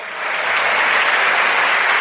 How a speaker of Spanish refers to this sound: Da un aplauso fuerte al Señor.